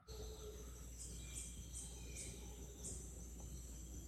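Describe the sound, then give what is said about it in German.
A dense jungle ambience heard from inside an open-topped bungalow with fly screens: steady, high insect chirping, with repeated bright pulses over a constant hum and a low rumble beneath, with some howler monkeys; no voices. “Also wirklich schöne Atmos Dschungelatmosphäre, sag ich mal.”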